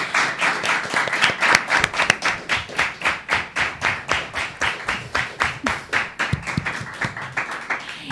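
An audience bursts into loud applause, which quickly settles into steady, rhythmic clapping in unison, about three claps per second, continuing for several seconds with no talking.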